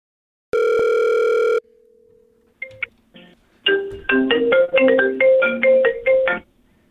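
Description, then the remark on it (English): A telephone rings: one loud, steady electronic tone, then a faint hum, followed by a bright ringtone melody of quick repeated notes lasting a few seconds, with no voices. “How is how is how is it ringing and I'm talking to you?”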